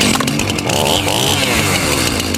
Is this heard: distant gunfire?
no